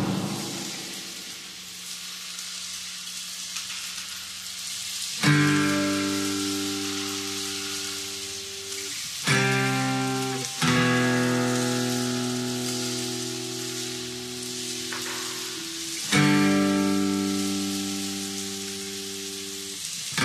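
Steady, soft rain hisses throughout, alone at first, then continuing beneath sustained musical chords that swell in and change every few seconds.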